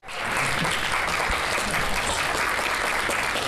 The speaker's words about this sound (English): That sounded like polite applause.